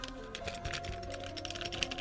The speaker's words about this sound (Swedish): Ja, det är nycklar i ett kuvert som jag ska posta tillbaka. Vet du vems fucking nycklar det är som jag har i min jackficka?